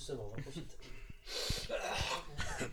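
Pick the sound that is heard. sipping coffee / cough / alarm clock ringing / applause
cough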